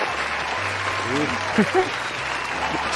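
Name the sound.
applause sound effect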